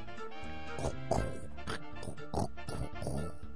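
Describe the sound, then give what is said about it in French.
A voice imitates a faulty vinyl record as a technical-problem sound effect, producing choppy, stuttering bursts of grainy, scratchy vocal noise that repeat unevenly for a few seconds, with no other talking. “Mais en fait, je suis euh, imitateur à mes heures perdues, mais de bruit de problèmes techniques.”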